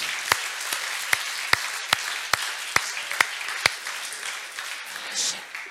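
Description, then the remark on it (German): Applause for the young generation who take part comes through as a string of about nine crisp, separate claps at a steady rhythm, with a faint murmur underneath, then the clapping stops and only a soft background remains. “Also echt, ich glaube, es ist immer wieder einen dicken Applaus wert für die junge Generation, die sich da einbringt.”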